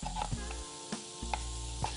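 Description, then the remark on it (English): A Cutco cheese knife cuts through cheese with a few soft, spaced taps on a board, over a steady background sizzle of food frying in a pan. “So I'm just chopping these down with the Cutco cheese knife.”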